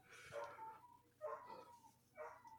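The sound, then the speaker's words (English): A pet dog shut out of the room where its owner is barks three times from another room, faint and muffled, each bark a high, yelping burst spaced about a second apart, with no one talking. “Whose dogs are those?”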